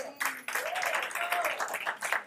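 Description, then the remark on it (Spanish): An audience breaks into loud, sustained applause offered up to heaven, a dense wash of clapping running for a couple of seconds with a few raised voices calling out over it. “Tirado un aplauso al cielo fuerte, Señor.”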